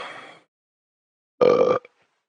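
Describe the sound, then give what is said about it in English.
A loud, throaty burp bursts out for under half a second after a breathy, softer sound and a pause, with a tiny trailing grunt at the end. “you burp your ABCs.”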